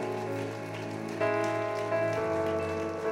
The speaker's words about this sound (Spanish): Amén y amén, Señor. Ese aplauso de alabanza al Señor, aleluya.